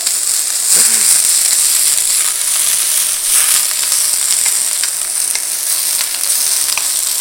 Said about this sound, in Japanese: 今もやしを投入したもやしってこれさごま油で今もやし炒めてんだけどこれだけでめちゃめちゃうまそうな匂いするよどうですかこの効果音もこれステレオで録音したら ASMR になるかな